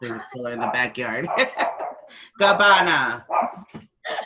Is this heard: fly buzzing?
no